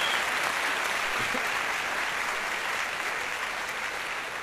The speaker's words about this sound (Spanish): Pero bueno, un fuerte aplauso